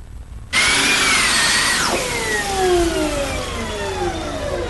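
A high electric whine from a Formula E electric race car on a circuit bursts in after a moment of quiet. It holds steady, then slides downward in pitch as the fast car passes and recedes. Loud, with no talking.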